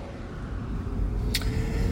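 Steady low road rumble and engine-free hum from inside a moving Toyota hydrogen fuel-cell car, fairly loud and constant, with one brief sharp click near the end.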